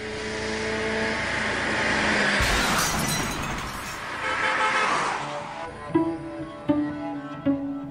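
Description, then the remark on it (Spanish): A Facel Vega car's engine hums with steady tones on a straight road, then a loud burst of noise as a tire blows out and the car crashes into a tree, with shattering glass and scattered clattering impacts trailing off afterward. “le baje a la velocidad de su auto Facel Vega en una recta sin obstáculos, pero de repente el neumático revienta.”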